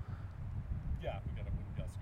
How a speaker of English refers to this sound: That's that's a that's a continuous gust. That's not a gust. That's that's that's that's wind.